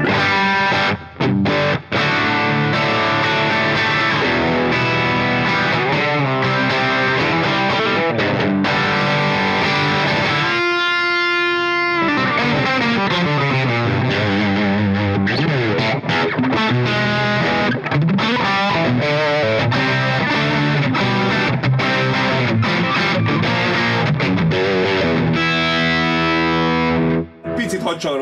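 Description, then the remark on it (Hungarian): An overdriven electric guitar plays through an amplifier, loud, with sustained distorted chords and runs, a brief pause near the middle, then continuous gritty playing to the end. “veszek le egy kicsit a drive-ból, bár tök jót tudok játszani”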